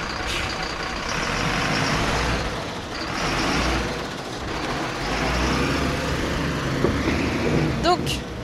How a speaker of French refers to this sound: Notre camion C'est notre camion C'est notre camion, là, il vient d'arriver